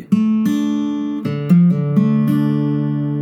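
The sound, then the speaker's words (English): A short acoustic guitar lick: a few notes plucked with the thumb ring out, and the pitch shifts smoothly between them as the second finger hammers on and pulls off the third fret of the fourth string. Played steadily and clearly, with no talking. “So hammer on and then pull off.”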